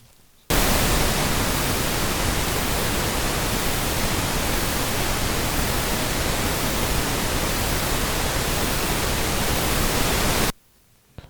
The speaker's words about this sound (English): All right, what do you think? I'm not going to lie. Uh huh. To me, that just sounds like traditional white noise. All right that what you're going with? That's well, what I'm going with, yeah. Nope, that is violet or purple noise.